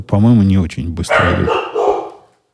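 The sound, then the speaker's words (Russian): A visiting guest dog barks loudly, a drawn-out, tonal bark at the start, followed by a man speaking as the barking gives way. “Это вы слышали голос нашей гостевой собаки.”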